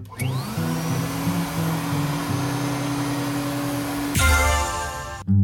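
A vacuum cleaner motor whirs up to speed and runs with a loud, steady roar and droning hum, then its tone abruptly shifts near the end. No one speaks.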